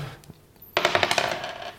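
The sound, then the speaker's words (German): A die, rolled to decide who pours the other a glass of wine first, clatters across a hard table surface, a quick burst of bright rattling knocks over about a second that bounce rapidly and then settle, after a quiet moment with a few faint taps. “wir haben einen Würfel, in dem wir, mit dem wir festlegen, wer als erstes dem anderen einen Wein einschenken darf bisschen Glücksspiel.”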